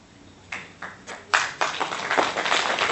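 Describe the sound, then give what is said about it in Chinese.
An audience breaks into applause: a few scattered claps at first, quickly swelling into a dense, steady patter of clapping that keeps going to the end. “嘿，你们为什么鼓掌啊？”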